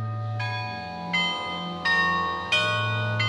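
Carillon church bells ring out in a steady sequence of bright, resonant strikes roughly every second, each tone overlapping the lingering hum of the previous ones, with no talking. Played by retired music teacher Hubert Schäpper, carillonneur for 50 years.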